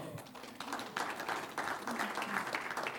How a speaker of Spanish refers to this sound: Un aplauso al Señor.